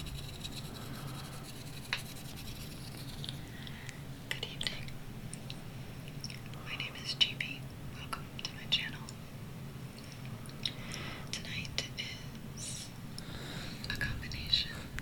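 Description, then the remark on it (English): A woman's fingers move right up against a microphone: soft, close rustling and brushing with scattered small clicks and wet taps, steady and quiet throughout, ASMR-style. “That's her fingers moving.”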